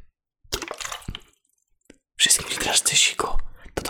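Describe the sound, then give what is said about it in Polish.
Water sloshes and squelches in two bursts, a short one and then a longer, louder stretch of wet splashing movement. No one speaks. “Jeszcze dźwięk wody.”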